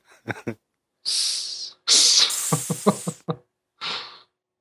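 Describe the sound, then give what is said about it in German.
A person hisses like a snake in three drawn-out, airy bursts, with short breathy voiced puffs between and a few quick vocal sounds at the start. “Und eine Schlange höre ich auch im Hintergrund.”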